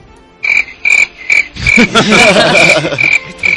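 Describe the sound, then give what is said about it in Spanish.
Frogs croaking in a quick, regular series of pulsing calls, several callers overlapping into a dense chorus midway, fairly loud with no talking. “Estos son ranas.”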